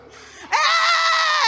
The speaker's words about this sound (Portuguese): Quem consegue dar um grito aí e dizer: Eu vou.